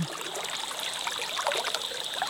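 Steady flowing river water, a continuous bright rush with small trickling, bubbling details, moderately loud, with no voices over it.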